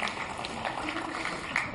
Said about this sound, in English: Thank you very much. How about a round of applause, yeah.